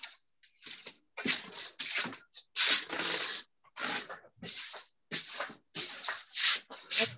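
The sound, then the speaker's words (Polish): Irregular rustling in short crackly bursts, like something being shuffled or rubbed, continuing with brief pauses throughout and no voices. “Nie, bo tam coś szeleściło, ja nic nie słyszałam.”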